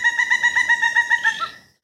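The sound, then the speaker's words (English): A pileated woodpecker, a crow-sized bird, calls a fast, even series of about ten loud, ringing notes, holding steady before trailing off at the end. No one speaks. “This crow-sized bird is our largest and loudest woodpecker.”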